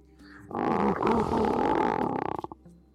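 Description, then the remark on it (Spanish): A loud lion roar swells up suddenly, holds as a rich rumbling bellow for about two seconds, then breaks into a few rhythmic grunting pulses before fading out. “El león hizo una pausa, miró fijamente al tío con sus ojos redondos de piedra y dejó escapar su poderoso rugido.”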